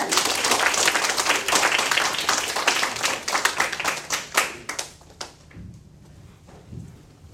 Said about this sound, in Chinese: 让我们以热烈的掌声来欢欢迎